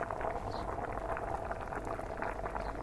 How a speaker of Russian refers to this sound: В это время начинает закипать суп, и ты слышишь, как булькает вода в кастрюле.